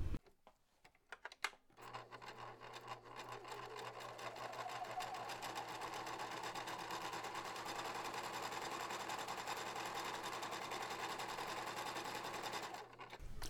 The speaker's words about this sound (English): just love the intro sound, and I know that I say this like every five episodes. And I love it too. Yeah. There's the nothing like the hum of mm-hmm. a sewing machine.